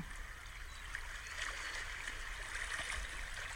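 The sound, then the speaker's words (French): Gentle sea waves lapping and trickling onto a sandy beach, a soft continuous wash with small splashes and bubbling, steady and quiet with no voices. “La caresse des vagues qui se déposent sur la plage vient enrouler doucement autour de nos chevilles le sable part doucement sous nos pieds.”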